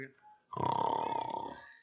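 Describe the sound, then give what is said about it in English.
People imitate a loud snore: a single long, rattling, throaty rasp with a fluttering texture lasting over a second, following a brief faint murmur at the start. “Yeah, that's that's a proper snore, isn't it?”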